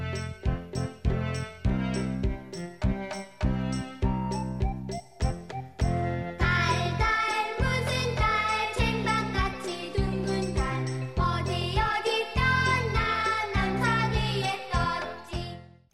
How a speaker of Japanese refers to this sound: それにちなんで、え今日は満月にまつわる童謡をご紹介します。タイトルは、タル、月。とってもシンプルで可愛い歌ですよ。